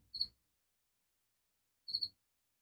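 Crickets chirp in two brief, trilling bursts about two seconds apart, each a quick cluster of high pulses, fairly faint against otherwise silent surroundings with no voices.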